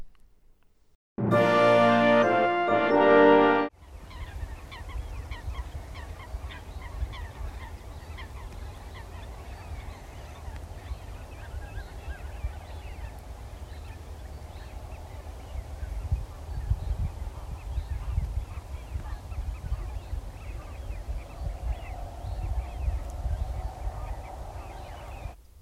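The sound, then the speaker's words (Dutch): After a brief loud tonal burst, a steady outdoor bird chorus runs on: the repeated calls of a displaying black-tailed godwit mixed with the whistles of wigeon over a low continuous rumble, recorded in the polder de Bakkeron. “Het zijn de geluiden van een baltsende gutto. Het zijn de geluiden van een fluitende smint”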